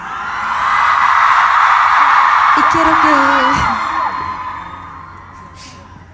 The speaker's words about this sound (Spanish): Y yo hoy quiero pedir, no un minuto, el tiempo que queramos para no estar en silencio. Vamos a gritar, porque ya hemos estado mucho tiempo en silencio.